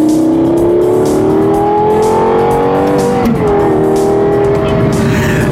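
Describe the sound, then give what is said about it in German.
A Lexus LFA sports car's engine pulls away loudly from an ordinary street intersection with traffic from the right and left, its tone climbing steadily with a brief dip midway before rising again, with no one speaking. “Das Gegenteil ist der Fall, weil wir nämlich an einer stinknormalen Straßenkreuzung standen, wo eben Verkehr von rechts und links war.”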